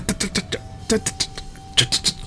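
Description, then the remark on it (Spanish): A voice imitates an old laptop's hard drive starting up like an old car engine struggling to start, making a quick series of about ten rhythmic, breathy sputtering bursts, fairly loud, with no other sounds around it. “El mío ya lo hacía estas últimas semanas como motor de carro viejo.”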